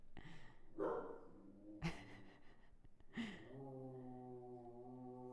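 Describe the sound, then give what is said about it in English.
A dog named Rufus grumbles and growls in a few short, sharp bursts, then settles into one long, steady, drawn-out growl that carries to the end. “and Rufus is doing a little growl and a little interruption.”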